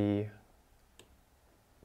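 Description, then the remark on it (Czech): A voice trails off, then a single crisp computer mouse click sounds in the quiet as a 'use discount' button on a coupon website is clicked, followed by a softer second tick near the end. “Když tady kliknu na využít slevu, tak je tady zase affiliate odkaz.”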